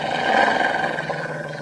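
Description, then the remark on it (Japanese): A person imitates the growl of a very large white dog baring its fangs: one low, rough, continuous snarl, fairly loud, holding steady for under two seconds with no other sounds or speech. “恐る恐る、うなり声のする方に顔を向けると、とても大きな白い犬が、恐ろしい顔をして、牙をむいているのが見えた。”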